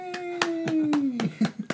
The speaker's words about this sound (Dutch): Dus geef hem een warm applaus.